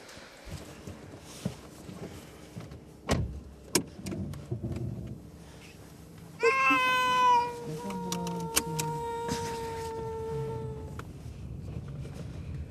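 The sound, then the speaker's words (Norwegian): Cats meowing in carriers: a loud, drawn-out wailing meow rises midway and trails into long whining cries, after a few sharp clattering knocks, with no one speaking. “Skal jeg ta de i burene så lenge, da?”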